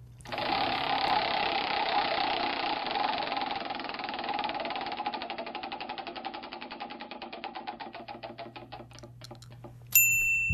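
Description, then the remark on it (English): A prize wheel spins with a rapid, continuous rattle of clicks that gradually slow into distinct ticks before stopping, followed by a brief bright chime at the end. “Would you like to spin the wheel again?”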